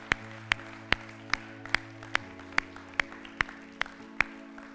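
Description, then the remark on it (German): Steady, evenly timed audience clapping for those who made a decision, about a dozen sharp claps in a row at a brisk beat, over a low sustained hum or organ-like tone, with no talking. “Lass uns jemanden Applaus geben, die diese Entscheidung getroffen haben.”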